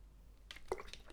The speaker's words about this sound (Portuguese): Desculpem, estou a beber água.